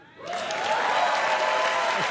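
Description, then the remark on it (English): A crowd breaks into applause, rising quickly after a brief quiet moment into dense, steady clapping with some cheering mixed in, sustained and fairly loud throughout. “it's, it's technology and you don't have to work that hard to get them to applaud.”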